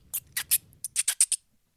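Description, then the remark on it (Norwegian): Someone imitates a mouse with sharp squeaky lip-smacks to lure a white stoat among rocks, as is done for foxes, about eight high chirps in a quick uneven burst before falling silent. No talking. “Kom med hvit i steiner da Så begynner jeg å smatte på den, akkurat som du gjør med reven.”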